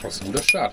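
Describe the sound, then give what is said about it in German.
A small metal zester clinks once, brief and bright, over a man talking; a faint metallic ring lingers after the tap. “Das ist der gute ja. Zestenreißer. Das ist der gute, der ist noch sauber auch.”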